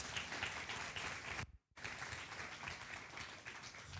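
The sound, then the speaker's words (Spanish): A crowd applauds two performers loudly and steadily, dense overlapping claps filling the whole stretch, broken by a brief cut to silence partway through before the clapping resumes just as strong. “Aplausos para ellos.”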